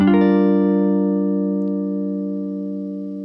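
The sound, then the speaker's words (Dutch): A clean electric guitar chord is struck once and left to ring, its bright, pure tone sustaining and slowly fading with no other sounds around it. “Zie je, hij is heel direct hele zuivere gitaar en ook heel erg veel systeem.”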